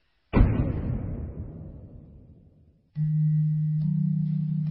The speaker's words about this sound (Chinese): 妈的，大不了赔一个门锁，先看看里面到底是怎么回事。只踹了一脚，门就开了。